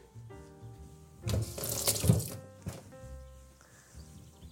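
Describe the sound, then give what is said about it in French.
A kitchen tap runs as a shallot is rinsed under it, water splashing in a louder burst for about a second, then trailing off over a steady low background hum. “Cette échalote, je vais la rincer.”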